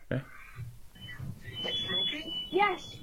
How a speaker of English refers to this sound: A pair of young boys making a rough rescue in Rhode Island. They were riding their bikes when they heard fire alarms from a home and quickly realized dogs were trapped inside.